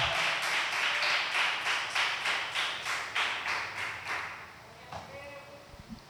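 An audience applauds to the Lord together, a dense crowd of hands clapping in a steady, rhythmic beat that gradually thins out and fades near the end.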